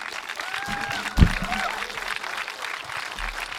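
Steady audience applause at a poetry slam as a performer comes onto the stage, a dense wash of many hands clapping, with a brief louder thump near the start and faint whistle-like tones drifting through.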